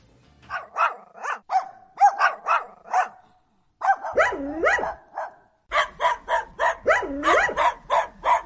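A dog barks rapidly and repeatedly in short, sharp, loud bursts, pausing briefly midway before resuming, with a few higher whining yelps mixed into the barking.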